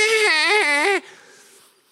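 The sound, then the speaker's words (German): A voice mimics a whining, crying baby: one loud, wavering nasal wail about a second long with a rising-falling pitch, then it cuts off to near silence. “Du solltest mit Mitte 40 nicht noch Pampers anziehen und in die Windel kacken und sagen, meh, meh, es ist so schlimm, Gott ist tot, meh.”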